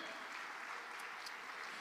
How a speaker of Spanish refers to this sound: Usted le da palmas al Señor con gozo. Amén.